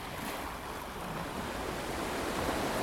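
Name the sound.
ocean waves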